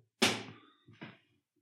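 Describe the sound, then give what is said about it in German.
A small object with arrows on one side is flipped like a coin with a thumb flick and lands with a sharp clack, then bounces once more with a softer knock before settling arrow side up. No voices are heard. “Kommst du also, Ich werfe das wie eine Münze mit so Daumenflip.”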